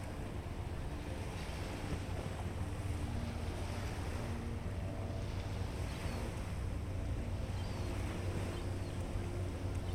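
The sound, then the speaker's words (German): Steady ocean surf washes against the rocks on which a statue of a girl in a wetsuit sits in Vancouver, a continuous churning roar with deep rumbling and gusty wind noise, no distinct pauses between the waves and no voices. “Die Wellen schlagen gegen die Felsen, auf dem sie sitzt, während im Hintergrund die schimmernden Glasfassaden der Stadt auf dem Wasser glänzen.”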